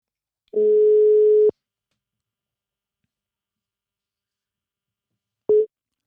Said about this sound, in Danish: Nu ringer vi til ham, så vi kan komme i gang med dagens afsnit.